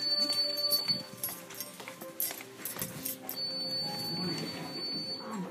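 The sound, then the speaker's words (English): A feeding pump's completion alarm buzzes and beeps continuously at moderate volume, signalling that the feeding is complete, with muffled background activity and faint voices around it. “Could someone come turn off this buzzer? The feeding is complete.”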